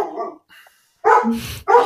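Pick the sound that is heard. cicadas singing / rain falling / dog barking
dog barking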